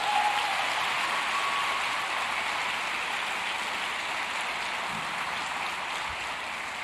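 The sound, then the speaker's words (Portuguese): A church audience applauds Jesus during a sermon in a dense, sustained burst of clapping lasting several seconds, a broad hiss-like texture with no voices standing out. “Aplauda Jesus por isso.”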